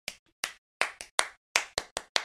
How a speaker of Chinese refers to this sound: 各位来一个掌声鼓励，来！